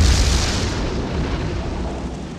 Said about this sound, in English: shoots at the windmill, triggering one final explosion.